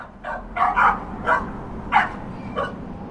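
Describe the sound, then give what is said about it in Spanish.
A small puppy barks about six times in short, irregular bursts, moderately loud, over a low background hum with no one speaking. “Entonces le llevaron un perro.”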